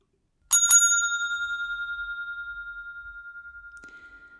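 A reception desk bell dings sharply with a quick double strike, then a bright, clear ring lingers and slowly fades over several seconds, alone with no voices.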